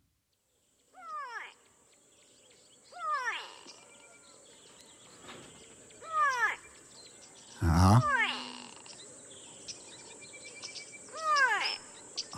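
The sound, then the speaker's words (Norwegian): A grey go-away-bird gives a series of nasal, drawn-out wailing calls, repeated about every two seconds over faint background birdsong, with a brief spoken word partway through. “Gråturako heter den fuglen og lever sør for Sahara.”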